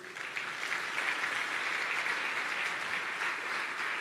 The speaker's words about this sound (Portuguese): Amém, gente? Aplauda Jesus mais uma vez.